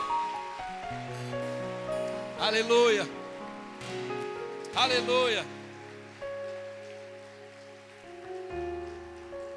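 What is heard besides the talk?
audience applauding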